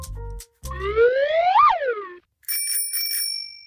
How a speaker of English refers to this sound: Oh, it's a bicycle bell. Why is that in the backpack?